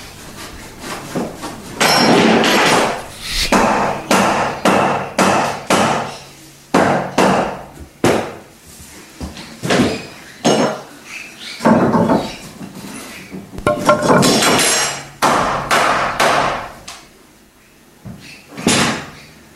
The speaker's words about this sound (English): Thanks to Safe Work New South Wales, we have a live audiovisual feed of the construction site where the family should be hard at work constructing the rest of the metro. Let's have a look now.